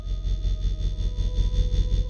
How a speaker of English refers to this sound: I went out to get in my car to go home, and I could hear this buzzing sound, and I realized it was a lamppost there in the parking lot, and something maybe was wrong with the, the lamp on top of the post, and it made a really loud buzzing sound.